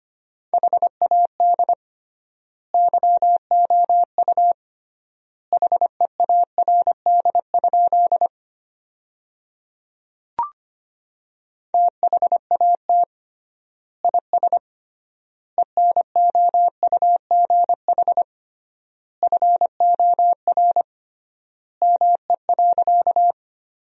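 Morse code sent as a steady, mid-pitched beeping tone at about 25 words per minute, sending sentences made from the top 400 words with triple word spacing, rapid dots and dashes in clustered groups separated by short pauses, with one brief click midway.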